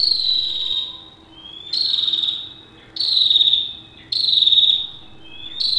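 A prinia calls repeatedly, sending out high, shrill bursts about once a second, each starting sharply and trailing slightly downward, over a faint steady background hum with no voices.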